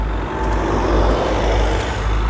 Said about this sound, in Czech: Vede k němu silnice obklopená hustým křovím a ovocnými stromy. Cesta je hodně úzká, před projíždějícími auty musím ustupovat ke krajnici.